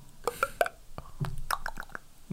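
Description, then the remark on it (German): A person imitates water bubbling and glugging into a glass with a quick series of wet, popping mouth sounds, fairly loud, with no talking. “Das ist richtig Wasser ein, einlaufen lassen in Glas.”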